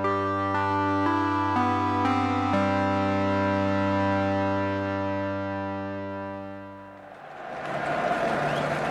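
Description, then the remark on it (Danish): A sustained, heavily distorted chord drones for several seconds and fades, then a dense roar of a football stadium crowd swells in and grows loud for the final moments. “Ja, så kan den, øh, den skarpe lytter jo nok lægge mærke til, at nu starter der noget lyd af et tilskuer fra et fodboldstadion.”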